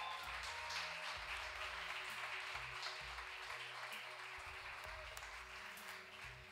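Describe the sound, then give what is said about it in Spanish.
An audience applauds the Lord after a miracle of restored sight is told, a dense, sustained wash of many hands clapping at once, holding at an even loudness for several seconds over a low background hum. “Denle un aplauso al Señor.”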